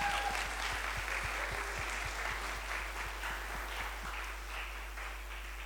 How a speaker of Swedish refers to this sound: Eh, vi kan väl, jag tycker vi kan ge våra tolkar ett, en, en stor applåd faktiskt.